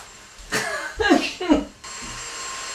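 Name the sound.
vacuum cleaner running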